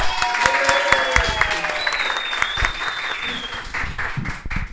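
An audience bursts into steady applause with cheers and whistles over it, dense rapid clapping holding loud for several seconds before easing slightly at the end.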